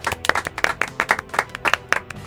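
A small audience claps together in a quick, irregular patter of sharp, bright hand claps lasting a couple of seconds, with no talking over it, for a contestant being introduced before a musical duel.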